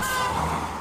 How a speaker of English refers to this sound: Probably would have been better if I wasn't sitting in a car in a busy street.